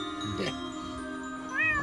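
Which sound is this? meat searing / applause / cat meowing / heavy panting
cat meowing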